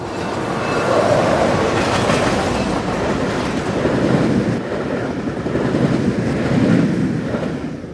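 Freight trains pass through the narrow Rhine valley in Germany, one every minute; a steady, loud roar of rolling wagons with rhythmic clickety-clack from the wheels and faint metallic squeals, filling the whole stretch without any voices.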